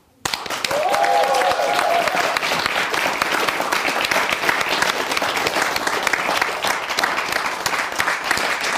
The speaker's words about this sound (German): Und der Chef von dem Ganzen, der Kreativdirektor, der, der sich alles ausdenkt und versucht, das hier irgendwie in die Bahn zu leiten, dass auch das Publikum klatscht.